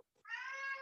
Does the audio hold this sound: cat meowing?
yes